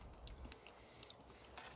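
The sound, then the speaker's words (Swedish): Quiet wet chewing and squishing mouth sounds as someone chews and swallows an energy gel, with a few soft clicks and smacks over about two seconds, no talking. “Ja, man får jobba med, jobba med munnen för att få ner den.”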